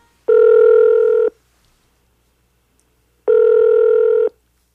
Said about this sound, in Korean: 그리고 얼마의 시간이 지나자 제 행동이 경솔했다는 생각이 들었고 시간이 지날수록 그가 너무도 그립고 견딜 수가 없어서 그 사람의 생일날 그에게 전화를 걸었습니다.